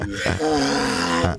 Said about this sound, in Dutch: Ja, een reuzenschildpad. Ja, ik, ik, ik, weet niet precies hoe ik moet duiden, want dat is niet mijn specialisme.